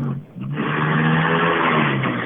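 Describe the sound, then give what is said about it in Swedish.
The engine of the first untrimmed racing car in the Swedish senior championship (senior-SM) roars loudly and steadily for about two seconds with a strong, buzzing low drone, briefly dipping at the start before holding a constant, throaty pitch. No voices. “Ja, medan vi får in den första otrimmade bilen i senior-SM.”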